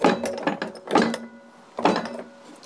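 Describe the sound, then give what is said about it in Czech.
The original foot-pedal bell of a historic tram under restoration is stamped several times: a quick cluster of clanging dings, then another strike and a final one, each leaving a steady ringing tone with a mechanical clatter. No one speaks. “Vy jste teďka sešlápnul vlastně tramvajový zvon, jestli se nepletu.”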